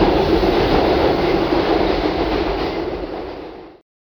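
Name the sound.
train running on rails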